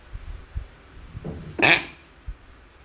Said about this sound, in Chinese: 要打喷嚏，就觉得鼻子痒痒的。